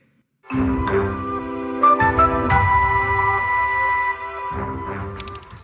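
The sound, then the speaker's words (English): A short, bright audio logo of six sustained musical notes, the first six notes of the circle of fifths, rich and harmonic, played clearly with no voices, swelling and blending before fading out. “We used the first six notes of the circle of fifths and created a C letter C inverted.”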